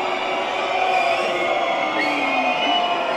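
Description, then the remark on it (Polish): A steady roar of a protest crowd, with high-pitched squeals and shrieks from women rising above the dense, continuous din of many voices. “Kobiety piszczą.”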